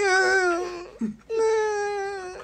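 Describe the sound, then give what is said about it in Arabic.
A voice imitates a cat in heat, letting out two long, loud, wavering yowls separated by a brief break, with no other sounds. “تحس ان يقول لك عارف القطط بتبقى هيجانه بتقعد بالليل كده تقعد تطلع صوت”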